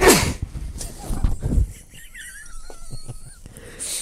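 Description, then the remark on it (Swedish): Someone blows their nose in a few rough, breathy bursts, followed by a thin squeaky whistle through the nostrils and one last short snort at the end; no one speaks. “Och så kan man snyta sig.”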